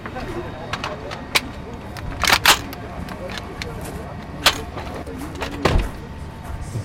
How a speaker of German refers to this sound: Dies ist ein Geräusch, das ich unzählige Male bei meinen Besuchen im deutschen Camp in Gao gehört habe. Das Laden und Entladen der Waffen, der Sturmgewehre jedes Mal, bevor die Soldaten rausfahren oder wenn sie von einer Patrouille wieder ins Lager